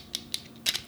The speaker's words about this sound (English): And this is the sound of my glasses unfolding.